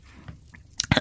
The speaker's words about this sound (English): And have a little sip of the old gin.